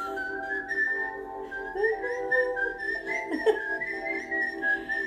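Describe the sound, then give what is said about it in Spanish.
Someone whistles a melody, a steady run of sustained pitched notes that glide and shift from one to the next over several seconds, with no talking. “Cuesta escuchar este silbido y reírse, porque todos sabemos a quién nos trae.”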